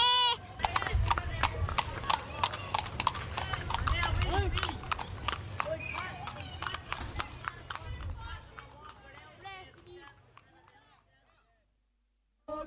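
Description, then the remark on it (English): The hooves of Derek's old horse, a mare with no shoes, clip-clop in a quick, steady rhythm, crisp over a low rumble, gradually growing fainter before stopping near the end. “That's Derek's old horse.”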